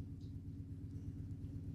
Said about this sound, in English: Okay, the strange noise has been identified as um, something is in the washer rolling around as the clothes are being laundered. So, uh, nothing, not a ghost, Nothing spooky, nothing out of the ordinary, everything's fine